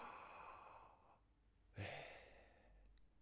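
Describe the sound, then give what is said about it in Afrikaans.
A slow, deliberate breath drawn in with a soft airy hiss, then a sharper, louder exhale, like a sigh. No one speaks. “Dan klink dit eintlik soos asemhaal. Asem in. Ja. Asem uit. Hoor jy dit?”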